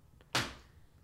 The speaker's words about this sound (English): Sorry about that. I had to kill a spider with a magazine. That's fair. I had to stand. It was going behind a chair. I couldn't let it get there. Uh, I had to. I had to attack it while it was in view. Sorry if that made a noise. Probably did.